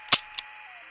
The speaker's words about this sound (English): You know what that sound is? I don't. That's the hammer of the gun. The pointy bit in the back that goes click, click.